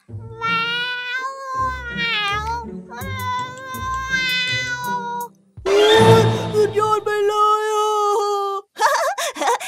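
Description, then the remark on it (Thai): A person's voice mimics a cat while telling a story, drawing out a series of wavering, nasal meows with pitch bends, loud, followed by a few strained yowling cries and a brief pause between bursts. “เองทำเสียงแมวได้ไหม แมวอ่ะแมวอ่ะ ได้เลย งั้นคราวนี้ข้าเป็นแมวนะ”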